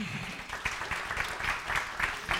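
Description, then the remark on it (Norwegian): An audience claps steadily and fairly loudly for the whole stretch, applauding the panel participants: a dense patter of many hands with sharper individual claps standing out at irregular moments. “Og en applaus til uh, deltakerne.”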